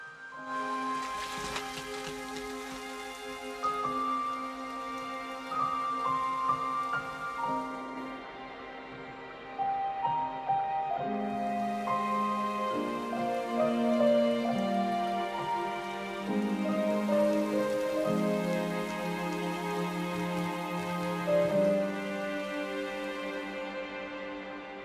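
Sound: rain falling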